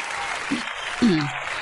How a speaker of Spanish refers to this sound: Eh, un aplauso, un aplauso, un aplauso. Un tremendo aplauso